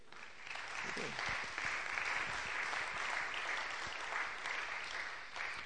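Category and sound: crowd, audience applauding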